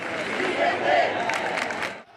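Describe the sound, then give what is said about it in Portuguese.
A dense crowd of protesters fills the main streets and avenues of Paris, protesting a government decision making a vaccination certificate mandatory. It roars continuously, many voices blending into a loud, broad wash with scattered shouts rising above it, cutting off abruptly near the end. “As principais ruas e avenidas de Paris ficaram tomadas pela multidão.”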